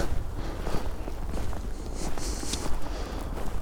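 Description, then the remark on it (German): Steady footsteps crunch and rustle over rough ground outdoors along a small trampled path across a farm field, a continuous walking rhythm with soft swishing of vegetation and light background hiss. “Ich gehe mal hier lang. Hier ist so ein kleines Trampelfältchen, was wahrscheinlich auch nur von Tieren irgendwie genutzt wird, weil ich hier echt auf dem Acker bin.”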